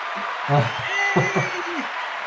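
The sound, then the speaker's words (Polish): Steady applause, a dense crackling wash of clapping that fills the whole clip at a moderate level, with some low voice-like murmuring mixed in underneath. “Brawo również, a faktycznie, no przecież mamy brawo.”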